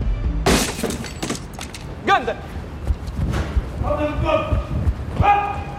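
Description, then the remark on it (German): Heavy blows and splintering crashes as robbers batter a locked door until it breaks open, in a post office courtyard, with sharp cracking impacts and clattering debris, while a voice speaks over the commotion. “Also ging sie die Türe, bis sie kaputt geht und aufspickt.”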